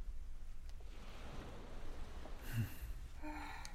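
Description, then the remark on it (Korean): A steady, soft wash of sea waves, muffled as if through an open window, with a low rumble beneath and faint brighter swells near the end. “창문 열어놨네. 음, 좋잖아. 바닷바람도 파도 소리도.”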